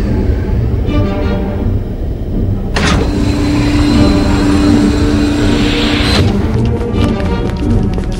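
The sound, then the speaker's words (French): A spacecraft shuttle approaching to land, requesting permission to land: a loud, continuous engine roar with a low humming drone, swelling into a brighter hissing rush for a few seconds before settling back. No one speaks. “Une navette en approche. Il demande l'autorisation d'atterrir.”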